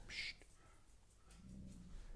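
A dog gives a short, high-pitched whimper right at the start, close by, followed by quiet background rumble and a faint low murmur.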